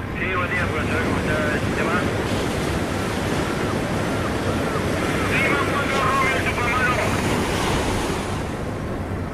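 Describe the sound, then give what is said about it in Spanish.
A loud, continuous roar of sea surf breaking along the coast at the coastal town of Camarones, Chubut Province, Argentina, dense and steady throughout with wind gusting across the microphone. “Rugido del mar registrado en el pueblo costero Camarones, provincia de Chubut, ubicado a 252 kilómetros de Treleu y a 262 de Comodoro Rivadavia.”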